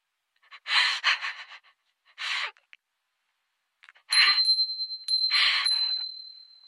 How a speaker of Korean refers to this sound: 이 종소리 들리세요? 네, 들리네요. 행운의 종이래요. 내 가방에 달려 있어요.